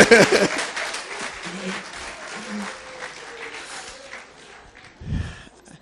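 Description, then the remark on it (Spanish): An audience breaks into applause, the dense clapping loudest at the start and gradually thinning over several seconds, with a few faint voices mixed in beneath it. “Denle un aplauso.”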